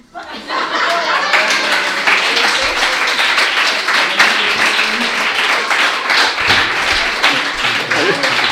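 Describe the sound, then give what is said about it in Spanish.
A person claps their hands steadily and quickly for several seconds, loud, with a bit of chuckling or voices underneath, applauding a joke. “Estoy aplaudiendo una puta mierda de humor.”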